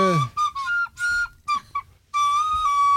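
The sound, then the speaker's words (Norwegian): A recorder plays on Radio Norge a short, simple melody of sustained piping notes with brief gaps between phrases, fairly loud, ending on a long held tone. “Men nei, nei, det, blir det blir blokkfløytespill i stedet.”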